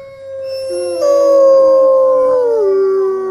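Several wolfdogs howl together in long, overlapping, wavering tones that slide slowly downward, forming a loud, sustained chorus close by with no talking.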